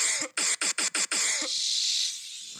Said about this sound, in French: Alors, euh, désolé, j'ai essayé de pas tousser aujourd'hui.